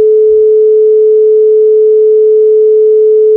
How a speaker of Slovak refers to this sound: A teraz nasleduje tón s frekvenciou 432 Hz, tu je jeho zvuk.